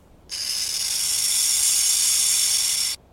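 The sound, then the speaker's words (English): A burrowing owl hisses like a rattlesnake: one steady, harsh, buzzing hiss held for about two and a half seconds, loud and high-pitched with a dry rattling texture, then cutting off abruptly. “In one experiment, ground squirrels were nearly as alarmed by the burrowing owl's hiss as they were by the recording of a real rattlesnake”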